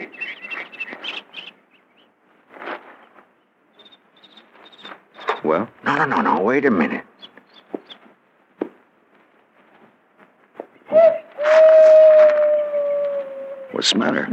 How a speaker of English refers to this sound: Did you hear that owl? Yeah. Remember hearing it a ways back?